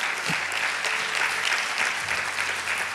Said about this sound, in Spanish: Te alabamos, Señor. Dele fuerte aplauso al Señor.